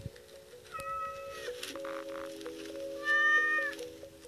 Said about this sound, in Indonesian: itu suara kucing lucu banget ya.